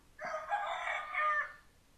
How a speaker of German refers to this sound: Was schwimmt auf dem Wasser und macht Kikeriki? Hm. Ein Wasserhahn.